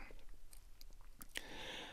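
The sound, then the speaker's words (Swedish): Quiet mouth noises: a few small wet smacks and sips, then a longer hissing slurp as coffee is drawn from a saucer through a sugar cube held between the lips, with no talking. “Manda hällde kaffet på fat, tog en sockerbit mellan läpparna, sörplade och läppjade”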